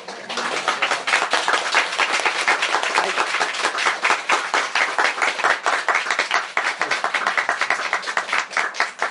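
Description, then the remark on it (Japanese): Sustained applause from a lecture audience for the visiting lecturer at the close of the talk, a dense, steady crackle of claps holding at an even loudness for about nine seconds with no voices over it. “えー、ということで、はい、内田先生も神戸からいらっしゃったのでまた、えー、今一度あの拍手の方よろしくお願いします。”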